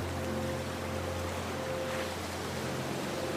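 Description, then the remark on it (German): Steady, soft watery wash as a canoe moves slowly along a gentle current through calm, clear water, with gentle waves lapping continuously and a faint low hum underneath. No one speaks. “Leichte Wellen werden vom Kanu angestoßen.”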